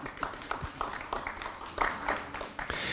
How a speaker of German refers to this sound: Freut mich sehr, dass Sie da sind. Einen kleinen Applaus bitte ich für unsere Gäste.